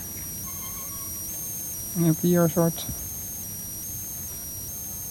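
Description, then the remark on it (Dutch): A steady, high-pitched electronic tone hums continuously from above the screen of a cash machine in Rotterdam. The tone is layered and unchanging, and a man briefly speaks over it partway through. “melodietje of alarmpje.”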